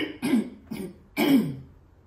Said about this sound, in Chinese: 所以这件事情啊，你看我，你看我都想咳嗽了。